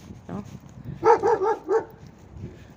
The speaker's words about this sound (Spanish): Hubo acá mucho perrito ahí, ¿eh?